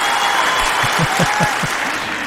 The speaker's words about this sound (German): genau, ganz, ganz kurz, danke, Applaus.